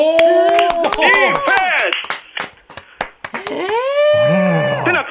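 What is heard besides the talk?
rhythmic hand clapping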